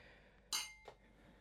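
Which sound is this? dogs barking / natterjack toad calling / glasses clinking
glasses clinking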